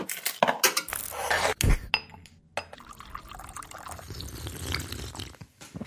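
Lavazza coffee being poured into cups, with a few clinks of china at the start followed by a steady, trickling pour that rises in pitch as the cups fill.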